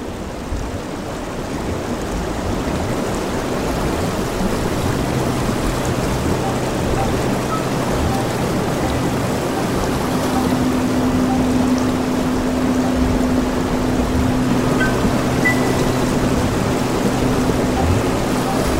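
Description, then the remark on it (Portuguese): A river flows in the middle of its bed in a dense, opaque wash of water noise, steady and unbroken throughout, with a faint low drone humming underneath. “No meio de seu leito, o rio já é outro. Soa denso e opaco.”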